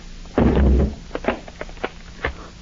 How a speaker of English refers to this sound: Mr. Peters, the door is cracking. I'm afraid it won't be long now.